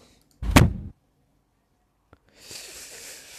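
A car door slams shut once, close and heavy, with a deep thud. A faint click follows after a pause, then a soft, steady hiss sets in.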